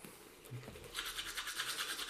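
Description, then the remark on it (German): Toothbrush scrubbing teeth with rapid, rhythmic back-and-forth strokes, a bristly hiss that starts softly then grows steady and louder, with no talking. “Ja, dann putzt mir gerade die Zähne.”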